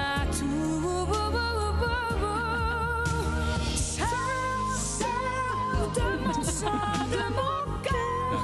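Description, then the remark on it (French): A recorded song with a powerful female voice soaring over a full, dense backing band, the sung melody sustained and wavering, loud and continuous throughout with no talking. “ce passage est quand même incroyable. La puissance vocale à ce moment-là.”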